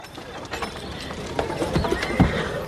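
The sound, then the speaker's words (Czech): Hooves of a horse being ridden clip-clop at an uneven, unhurried pace, a handful of sharp hollow knocks over a steady rustling background, with no voices. “Já když na tom koni sedím, ono mě to nutí to samotnou dělat.”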